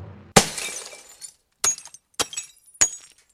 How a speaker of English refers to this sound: He walked into his house, found his mom and three older sisters watching the old Rawhide show on TV. Ernie grabbed his ma's Bible off the coffee table, smashed out the picture tube,